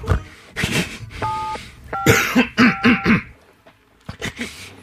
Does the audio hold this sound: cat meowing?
no